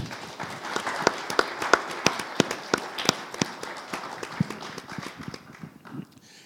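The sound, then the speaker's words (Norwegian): An audience applauds steadily, with sharp individual claps standing out over a dense wash of clapping that gradually thins and fades toward the end. “Du, dere kan få lov til å gi dem en god applaus.”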